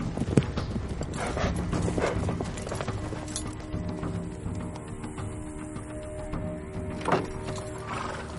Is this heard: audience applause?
no